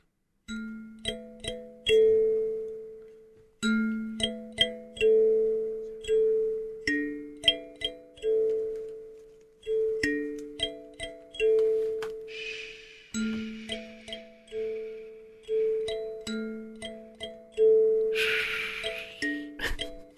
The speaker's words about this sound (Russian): Я вам сейчас показал одну калимбу, а давайте я вам просто покажу еще и другую, волшебную, небольшой звучочек.